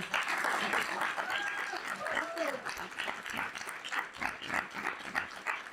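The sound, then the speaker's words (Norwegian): An audience applauds with dense, steady clapping that fills the whole stretch, with some scattered voices and a brief whistle-like tone mixed into the crowd noise. “Eh, da skal jeg takke dere av, og så kan dere få applaus,”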